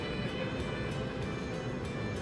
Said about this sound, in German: Unter der Erde mit rund 80 Sachen durch die Tunnel fahren.